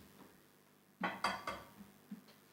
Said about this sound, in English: Do you mind breaking five eggs for me? And I'll just go through it.